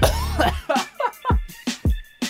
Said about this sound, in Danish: Ej, det er helt fucked, men jeg tror om et par sekunder, der ender jeg med at hoste mine lunger op.